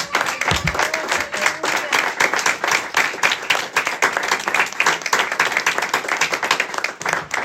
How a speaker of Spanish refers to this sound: Démosle un aplauso al Señor Jesucristo, bendito por todos los siglos de los siglos.